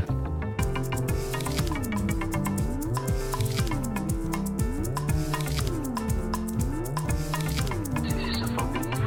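A recorded instrumental track plays steadily throughout, with a moving bass line stepping up and down beneath layered melodic instruments and a regular percussive pulse. No voices are heard.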